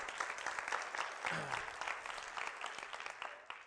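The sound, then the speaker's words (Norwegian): An audience claps steadily for a few seconds, a dense, even patter of many hands with no voices rising above it, applauding the people who run Cap Norge. “Ja, dere må klappe for dem.”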